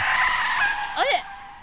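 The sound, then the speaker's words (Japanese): A loud skid: a sustained hissing scrape for about a second, ending in a short, sharp squeal as the motion comes to a sudden halt, then quiet. “どうしたのどうしたの急に止まっちゃって”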